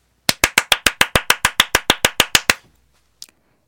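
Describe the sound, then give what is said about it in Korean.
A single person claps loudly and quickly as a birthday congratulation, about fifteen sharp, evenly spaced claps, then stops, followed by a faint small tap. “전 제가 치면서도 제 소리를 제가 지금 못 견디고 있거든요.”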